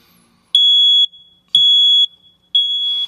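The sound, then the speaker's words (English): A smoke alarm sounds three loud, piercing high-pitched beeps early in the morning, each about half a second long, repeating at a steady one-second rhythm, with no voices. “The reason I had to look up is because now God wanted me to address the smoke alarm.”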